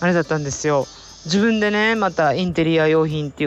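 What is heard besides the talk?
cicada singing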